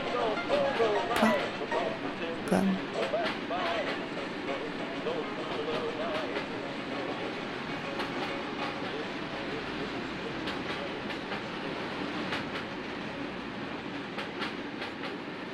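A train trailing a huge cloud of black smoke and ashes in humid, swirling wind rumbles steadily along the rails, a dense, continuous roar with sharp metallic clicks and brief squeals, loudest in the first few seconds before settling into an even, sustained clatter.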